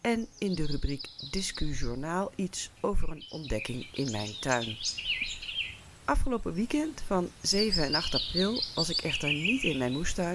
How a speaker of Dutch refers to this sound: maar met vrienden in het bos. En je hoort de vogeltjes nog op de achtergrond.